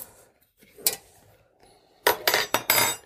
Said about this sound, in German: Die weiße Tasse ist meiner und das Glas ist deiner. Und hier tun wir die Teebeutel rein.